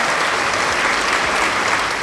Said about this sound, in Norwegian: Og så har vi Charter Anna, som har sendt inn en melding som gjorde at jeg tenkte uh, her fortjener faktisk litt applaus.